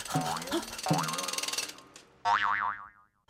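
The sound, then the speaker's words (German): Springy, cartoonish boing sounds of bouncing on a trampoline, with rising and falling pitch sweeps, followed by a louder wobbling boing that warbles up and down several times before fading out. “So kann ich noch wilder, noch höher und noch schneller auf mein tolles Trampolin springen.”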